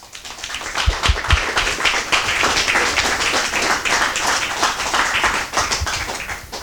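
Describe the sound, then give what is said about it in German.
An audience applauds steadily at the end of a talk: dense, overlapping hand claps forming a continuous crackling wash that holds at a fairly even loudness throughout, with a few sharper individual claps near the start. “darf nicht klatschen, wenn das Mikro an ist.”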